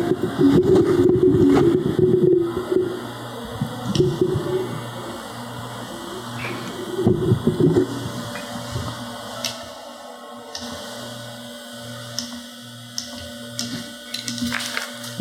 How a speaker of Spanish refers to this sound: Se escucha un ruido, ¿no? ¿No lo escuchan ustedes? Leve. ¿No es el refrigerador?